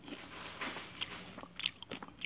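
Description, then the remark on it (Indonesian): Crisp, crackly bites into hard homemade fried catfish, a few sharp crunches in quick succession, with soft chewing between them and no talking. “kita cobain ya sambalnya lelenya dulu deng ih lelenya keras banget kayak otak lu kayak kepala lu gitu keras banget”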